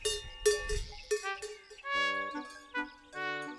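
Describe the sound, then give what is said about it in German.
Cowbells clank and ring in an uneven, overlapping jangle during a traditional costume club's festival procession, several bells with bright metallic overtones sounding at different pitches, some struck repeatedly in quick bursts with lingering resonant tones between. “Um ihn herum vernahm Franz Ferdinand Menschenstimmen, Vögelgezwitscher und Kuhglocken.”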